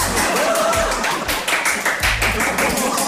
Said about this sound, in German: Und jetzt brandet hier wieder Applaus auf.